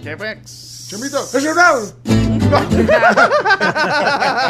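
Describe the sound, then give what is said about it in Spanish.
A single sharp sneeze bursts out, preceded by a hissing breathy noise, with people talking and laughing around it. “Salud.”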